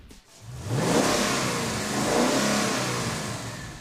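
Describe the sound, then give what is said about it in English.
Ford's 5-liter V8 engine, the Reborn 302 from the 2011 Mustang, fitted in the 2011 Ford F-150, revs up hard, its pitch sweeping upward twice in strong bursts, with a throaty rumble that stays loud throughout and no voices. “This 5 liter V8 debuted in the 2011 Mustang, and now the company is putting it in the F 150.”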